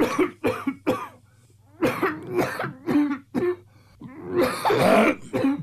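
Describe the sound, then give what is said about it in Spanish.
A voice imitates a harsh, barking 'dog' cough brought on by gastric reflux in the early morning: a run of loud, raspy hacks in quick irregular bursts, ending in a longer, strained throat-clearing rasp, with no other talk. “Oye, oye, en la madrugada a la misma hora, eh, mendiga tos de perro, güey.”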